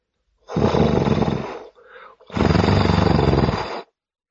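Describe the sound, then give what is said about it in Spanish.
A dragon's growl (the Dracus), voiced by a person, as it lies on a bed of glowing embers on a dark hilltop: two long, loud, raspy rumbling growls with a brief breathy intake between them, no words spoken. “Se quedó un momento quieto y luego volvió a gruñir.”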